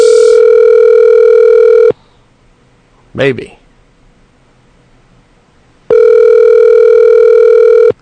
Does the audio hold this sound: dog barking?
no